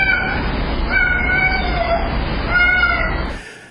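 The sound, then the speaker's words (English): A cat gives a long, drawn-out meow with a rounded "oo"-like vowel, loud, wavering in pitch over several seconds before cutting off abruptly. “There's definitely a "u" sound. Is that common for cats to make that U?”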